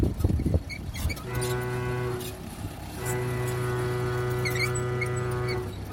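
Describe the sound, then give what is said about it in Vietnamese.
A loud, steady construction site horn sounds in two long blasts, the second held for several seconds, signalling workers to start going out onto the site, with faint background noise and no one talking. “Khi tiếng còi vang lên, cũng là lúc từng tốt công nhân bắt đầu ra công trường.”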